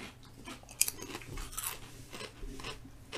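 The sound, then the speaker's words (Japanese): Crisp, crackly crunching of someone chewing hard, crunchy potato chips, a series of irregular dry bursts over about three seconds, fairly quiet, with no talking. “で、この、ザク、ザク、ザクっていうこう、うん雪原を歩くようなあ食感が欲しい、うん人はこれがいいと”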